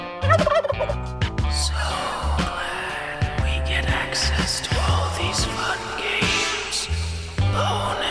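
Loud turkey gobbling in rapid warbling bursts, repeating throughout over a dense, layered background with steady low thumping.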